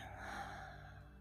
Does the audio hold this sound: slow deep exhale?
yes